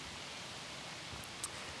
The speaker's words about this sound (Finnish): Tuuli se havisuttelee haavanlehtiä täällä Tärkkilän tiluksilla